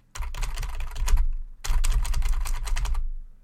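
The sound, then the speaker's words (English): Rapid, steady typing on a computer keyboard, dense clicking keystrokes in two bursts with a brief pause between, moderately loud, no voices. “And this computer had a keyboard, and the person began to type on it.”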